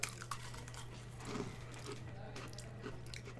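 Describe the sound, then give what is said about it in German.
Crunching as someone bites into a snack that looks like soft foam but is rock-hard, with a few sharp crackly bursts spread across a few seconds over a steady low hum. “Weiß ich mal, damit man mal einen Crunch hört.”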